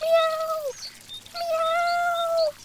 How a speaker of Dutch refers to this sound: Ergens in de verte horen ze een poes heel zielig miauwen. Maar waar? Ze kijken om zich heen, maar zien niks. Het lijkt wel van boven te komen.